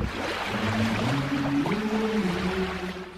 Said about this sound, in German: Wir machen jetzt einen Ausflug nach Italien. Sie hören ja hier schon die italienischen Wellen.